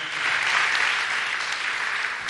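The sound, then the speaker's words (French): A crowd at a church worship service gives a second round of applause for the musicians, a dense wash of many hands clapping at once with no gaps, holding an even, fairly loud level throughout and no voices standing out. “En nous un deuxième applaudissement, battons bien.”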